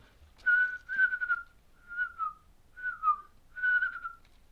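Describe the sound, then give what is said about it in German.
A person whistles an imitation of a sparrow call: four short tonal phrases of a steady mid-high pitch, some sliding slightly downward, separated by brief pauses, with no speech. “Ja, das war der Spatz.”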